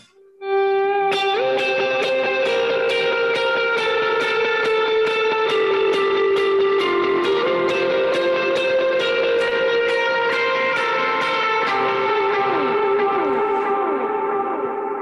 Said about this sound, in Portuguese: Isso daí, assim, na, uh, sei lá, eu, eu para mim hoje tocar sem reverb depende da música, né? Obviamente. Mas se tu colocar um, um drive e um reverb ali, já fica, nossa, fica lindo, cara.